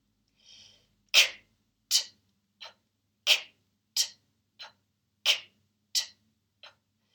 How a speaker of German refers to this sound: ja, aber da, die ist halt sehr wichtig, um seinen Atemmuskel zu trainieren und den Zwerchfellmuskel. Ja, das sind äh, stimmlose Konsonanten, die halt in kurzen Abständen gesprochen werden. Ich mache es mal kurz vor.